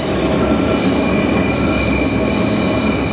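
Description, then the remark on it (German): A loud, sustained high-pitched squeal of train wheels grinding on rails, ringing steadily over a heavy rumbling roar of the moving train for the whole stretch, with no voices. The train is travelling from St. Moritz back up to the Bernina Pass. “Pfeift bei der SBB auch so? Ja, ah, selbstverständlich, das muss so tönen, das ist Eisenbahn.”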